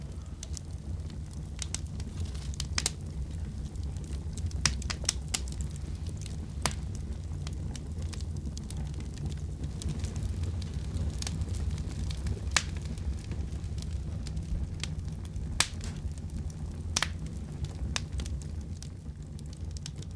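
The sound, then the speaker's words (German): A fire crackles steadily, with irregular sharp pops and snaps scattered over a low, rumbling roar. It sounds continuous, with no voices. “Feuer ist auch gut, natürlich, immer gut.”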